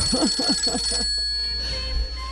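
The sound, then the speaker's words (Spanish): A telephone rings in a quick series of about four warbling bursts, clear, then stops, leaving a faint steady hum with no one speaking. “Suena el teléfono.”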